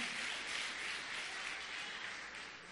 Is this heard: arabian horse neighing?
no